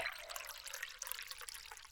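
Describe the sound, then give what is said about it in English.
Water pours in a steady, continuous splashing rush with a bright hiss, running evenly for the whole couple of seconds at a fairly soft level, with no voices. “The water!”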